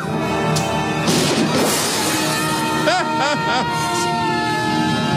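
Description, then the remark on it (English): A loud crash and shattering of glass with heavy impacts bursts out over a busy, noisy background as a man in a film scene is shot and sent through glass, followed by a few rising wailing tones and indistinct voices. “He elbows him and then blows him away through the glass, I would assume.”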